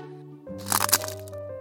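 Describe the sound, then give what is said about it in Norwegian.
A sharp, crackling snap sound effect bursts out for about half a second, loud, over a steady sustained musical tone that carries on underneath before and after. “Det var lyden av lesekoden som knakk.”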